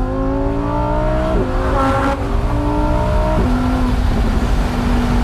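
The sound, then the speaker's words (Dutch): A loud orange Lamborghini Huracan Spider Evo Rear Wheel Drive engine revs hard, its pitch climbing in steps as it shifts gears, with a deep growling roar throughout. No one speaks. “Ehm, Lamborghini Huracan Spider Evo Rear Wheel Drive.”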